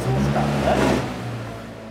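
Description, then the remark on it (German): A car engine runs loudly with steady low harmonic tones, briefly rising in intensity as an instructor tests the gas pedal, then settling back to a continuous idle-like drone. “und schaut dem Instruktor fasziniert zu, wie der das Gaspedal vom Auto testet.”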